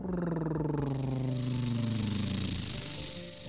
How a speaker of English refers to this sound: but why are you mowing your lawn again and why did you break another window of ours?